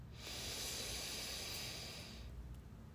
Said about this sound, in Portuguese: E primeiro eu quero convidar você para começar esse podcast para respirar fundo. Vamos comigo? Inspira.